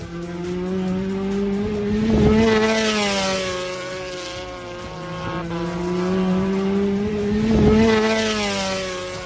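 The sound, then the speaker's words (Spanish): The racing motorcycle of Mar Márquez howls loudly and steadily, its pitch rising and falling through two strong surges like bikes passing by, with no talking. “Este ruido iba a acompañar, o este sonido tan bonito de la moto de Mar Márquez iba a acompañar, pues seguramente el comunicado de que volvía a correr.”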